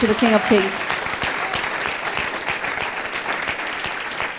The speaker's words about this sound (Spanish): ese fuerte aplauso al Rey de Reyes.